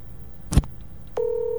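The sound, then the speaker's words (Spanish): A sharp click, then a steady electronic telephone tone begins and holds, like the ringback of an outgoing call, as a radio host phones the mayor. No voices. “Está sonando, está sonando.”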